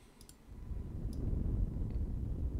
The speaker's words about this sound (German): Ja, hier ist ein kleines Feuerchen.